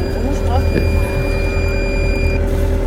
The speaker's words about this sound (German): Die Tiefenalarm, weil unser Tiefen, unser Echolot immer wieder mal ausgeht, was dann für Irritation sorgt. Gerade dann, wenn es flach wird, nämlich.